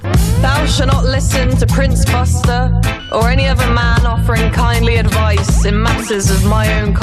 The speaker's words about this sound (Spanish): ella hace una letra, de nuevo, donde habla de, esos hombres que te dan consejos sin tú pedírselo, de la gente que te llama feminazi, de pseudo intelectuales de internet de lo más pesados, y la canción, la graba con ellos, la canción suena así.